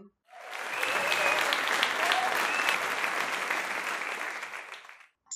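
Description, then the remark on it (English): A crowd bursts into loud, sustained applause with scattered cheers and whistles, holding steady for about five seconds before cutting off abruptly. “July of 2020 was when I sent out, released, debuted my first trailer and so I am one year old now, and I should cue a cheering.”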